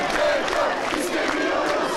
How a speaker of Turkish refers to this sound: Ancak yeni günde de öğrencilerin, mezunların, öğretim görevlilerinin üniversite kapısı önünde protestosu vardı.